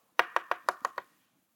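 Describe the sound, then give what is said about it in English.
Six quick, firm knocks on a door in a steady rhythm, fairly loud, then silence. “But what would, if somebody knocked on your door when you were a kid, what'd you do?”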